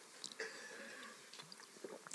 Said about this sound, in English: Can I just take a sip?